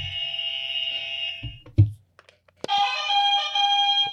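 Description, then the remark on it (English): Two loud electronic quiz buzzers go off one after the other, each a steady harsh tone at a different pitch, separated by a brief thump and a short pause, with no voices. “We got our buzzers ready?”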